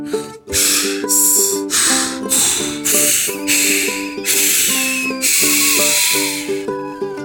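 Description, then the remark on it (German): A voice imitates an angry hiss, blowing a rapid series of sharp, breathy hissing bursts, with steady tonal sounds humming underneath throughout. “Wütendes Zischen, scharfes Einatmen.”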